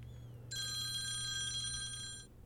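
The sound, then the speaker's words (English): A telephone rings once in a single sustained burst of bright, shimmering tones lasting almost two seconds, signalling an incoming caller to a radio broadcast, over a low steady background hum with no one talking. “Sounds like we're getting a caller.”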